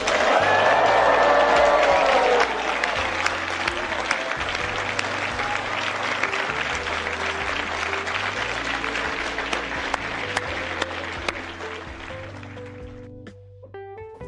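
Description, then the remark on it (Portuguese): Sustained applause from a large crowd at the Christie's auction of Leonardo da Vinci's painting Salvator Mundi as it sells for $400 million, dense and steady, with scattered cheers and murmuring voices early on, gradually thinning before it fades out near the end. “que você acabou de ouvir foi um áudio do leilão da tela Salvador Mundi, do Leonardo da Vinci.”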